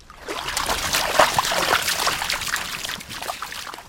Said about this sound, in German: Der Fluss ist nicht mehr als ein Meter breit und gerade mal knietief. Er ist in den vergangenen Monaten immer weiter ausgetrocknet, weil es nicht geregnet hat.